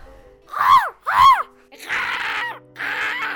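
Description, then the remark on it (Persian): A voice imitates a crow cawing as the crow in a told children's story, offering to sing: two arched, nasal caws followed by two longer, raspier harsh calls, each loud with short pauses between. “کلاقه قارقاری کرد و گفت”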